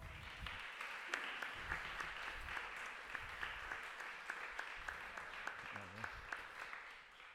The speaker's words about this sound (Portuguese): neste caso, na qualidade de escritora, a Anabela Mota Ribeiro, para quem peço uma salva de palmas, por favor.